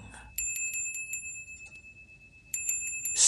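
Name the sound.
bells ringing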